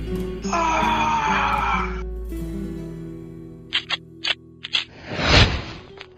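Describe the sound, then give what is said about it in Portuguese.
A man lets out a loud, sustained scream lasting over a second above a low droning rumble, followed by a few sharp clicks and a rushing whoosh. “Então ele grita.”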